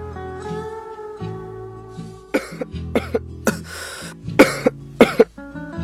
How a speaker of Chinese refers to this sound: 一阵咳嗽的声音在这时候从远到近传来。